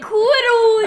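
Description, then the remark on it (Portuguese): In a forest, a person jokingly imitates a bear with one drawn-out, wavering moan that rises slightly then holds steady, fairly loud, lasting under a second with nothing else around it. “E eu imitei um urso de uma maneira perfeita, né,”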